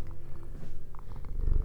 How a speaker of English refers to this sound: He's going to be my co host today. I don't know if you can hear him purring.